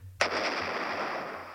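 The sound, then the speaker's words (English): A single explosion sound effect bursts in with a sharp, loud crack, then rolls into a long, roaring rumble that barely fades. A faint low hum runs underneath. “let's yeah. see what we've got under explosions.”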